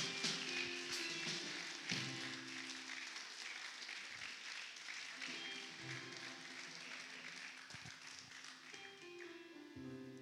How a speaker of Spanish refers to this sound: Dale aplausos al Señor, vamos. Dale aplausos al Señor.